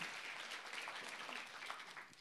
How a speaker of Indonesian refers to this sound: Tepuk tangan buat Tuhan saudara.